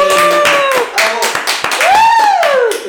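A small group of show hosts claps quickly and unevenly for about three seconds to welcome the day's guest, with voices whooping and cheering loudly over the sharp, steady hand claps.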